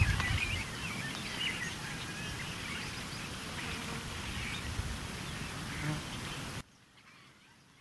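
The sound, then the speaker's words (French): A dense outdoor chorus of many small birds chirping and twittering at once, steady and busy throughout before cutting off abruptly near the end, with a low rumbling background underneath. “J'essaie de vous faire entendre le concert des, oiseaux. Il y en a beaucoup, il y en a plein, plein, plein.”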